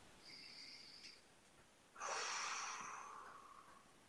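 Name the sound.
a deep breath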